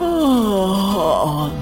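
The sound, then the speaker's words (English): A person imitates a tired lion's roar as a long, drawn-out, yawning moan that slides downward in pitch, sustained and fairly loud for over a second, with no other sounds. “And one day he had roared so loud for so long that by the end of the day, his roar, well, it sounded more like a yawn.”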